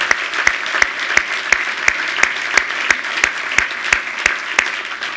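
An audience applauds the Lord steadily for about five seconds, a dense wash of clapping punctuated by sharp, evenly spaced claps that keep a quick, regular beat. No one speaks over it.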